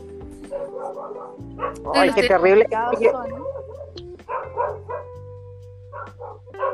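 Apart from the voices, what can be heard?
dogs barking outside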